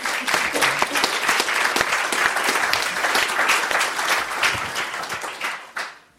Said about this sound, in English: But without further ado, can you clap, bring your hands together to welcome Ian Black and his book?